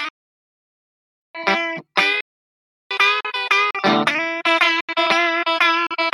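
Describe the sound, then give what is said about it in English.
An electric guitar played with the pickup selector in position five: two short strummed chords, a brief pause, then a quick, lively run of ringing notes and chords with a bright, slightly gritty tone, no voices. “Um, and then to go all the way over over to five, you know, that's for the way I hear it anyway.”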